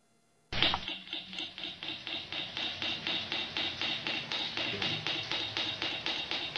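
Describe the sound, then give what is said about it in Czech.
Traditional Polynesian tattooing: a steady, brisk series of sharp scratchy taps, roughly three per second, continuing evenly throughout with no voices. “Tak teďka bych s dovolením poprosil uh, kolegu na ten zvuk, že bychom si ukázali, jak, jakým způsobem se tetovalo v Polynézii tou metodou a pustíme si krátké video.”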